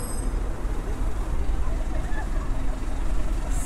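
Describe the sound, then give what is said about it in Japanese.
Steady road traffic on a road at night, a continuous low roar of passing vehicles that swells slightly toward the end, heard outdoors with no clear pauses. “道道路はうるさいねこれ多分ねステレオマイクはね環境音よく拾うんですよ指向性がない”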